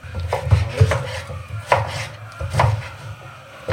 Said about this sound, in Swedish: Vad är det du skär nu? Det är en rest av en sötpotatis